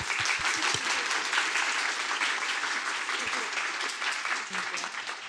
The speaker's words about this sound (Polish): Jeszcze raz bardzo dziękujemy za wykład. Wielkie brawa.